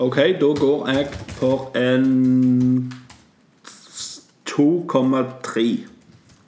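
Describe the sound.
A few soft, scattered keyboard clicks tap away in the background during a pause as a man types to open Excel and record scores, with him talking before and after and holding a long drawn-out hum.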